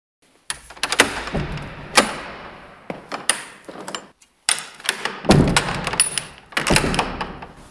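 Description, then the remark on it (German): A heavy door, the entrance to the cathedral treasury and diocesan museum in Eichstätt, is unlatched and pushed open as it reopens to the public after the winter break: a series of loud metallic clunks and thuds with rattling and scraping in between, with no voices. “Lange Zeit war diese Tür verschlossen, der Eingang zum Domschatz und Diözesanmuseum in Eichstätt.”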